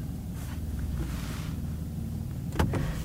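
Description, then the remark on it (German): A steady, loud whooshing hum fills the cabin, an electric car's synthetic standing sound in Sport Plus driving mode, with low droning tones underneath and a brief mechanical click near the end. “Auf Sport Plus wird es schon heftiger. Das ist ein richtig lautes Rauschen.”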